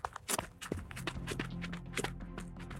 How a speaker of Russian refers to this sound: Девочка побежала за мороженым через пустырь.